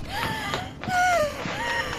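Strained, wheezy gasps for breath from a woman having an allergic attack, several harsh airy inhalations with whistling tones, fairly loud, repeating unevenly over two seconds with no talking.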